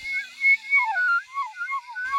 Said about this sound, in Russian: И начал свистеть надо сказать, просто невыносимо. Но ничего не случилось.